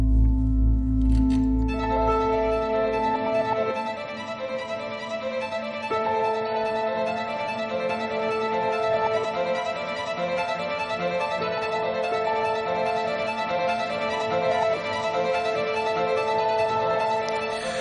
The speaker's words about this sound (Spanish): Bueno, es un tráiler eh, solamente con música eh, y con eh, reseñas de diferentes medios de, que asistieron al, al pase, bueno, al, al, pase ahí en el Festival de, de Berlín.